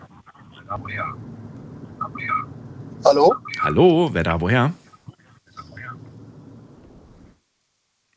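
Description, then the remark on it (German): A steady, muffled rumble of a car driving comes through a phone line, continuous and fairly quiet, while a man's voice talks over it. “Ich höre nur ein Auto.”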